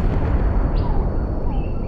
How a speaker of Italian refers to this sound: Ma sappiatelo, quella non è una bomba, è una porta che sbatte. Durante l'incisione del brano in Scozia era rimasto aperto il microfono mentre sbatteva una porta dello studio e si è deciso di mantenere il rumore nella registrazione